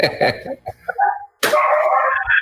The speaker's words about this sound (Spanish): Ah, pues, escucho los perros. ¿Tiene muchos perritos? Diez.